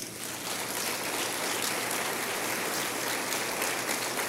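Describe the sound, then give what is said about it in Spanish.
A church audience applauds the Lord steadily, a dense wash of many hands clapping that holds at an even level for several seconds without any voices standing out. “Dale un aplauso al Señor.”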